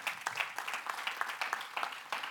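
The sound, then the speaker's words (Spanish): A church audience at a night service breaks into steady applause for the Lord, many hands clapping in a dense, bright patter of overlapping claps at moderate loudness, with no clear speech on top. “Alguien le da un aplauso al Señor esta noche.”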